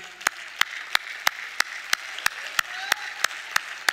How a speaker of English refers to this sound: We applaud our Hands for Healing ministry.